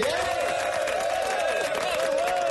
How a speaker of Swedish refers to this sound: Den där applåden vi har faktiskt haft den i tio år. Vi kanske ska mm. uppdatera den lite. Mm, jag älskar den.